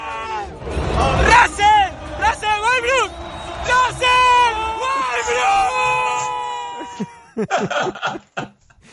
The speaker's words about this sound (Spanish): Qué gritos, Muy, muy, a cuento venía esto, ¿no?